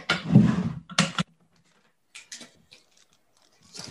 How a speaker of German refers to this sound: Also ich öffne jetzt hier dieses Päckchen. Genau. Hier gerade eine Schere.